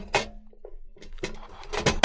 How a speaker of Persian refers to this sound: به این صورت بازش کنیم نوار کاست رو داخلش بذاریم صدایی که بسته شد و آخ آخ منتظریم تا خونده بشه